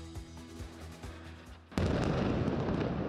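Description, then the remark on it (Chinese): Israeli airstrike on Gaza at night, a fireball: a low droning hum with soft rhythmic thuds gives way to one sudden, massive blast whose loud, rumbling roar carries on without letup to the end. No one speaks. “伴随巨大声响，夜间的火球是以色列的回击。”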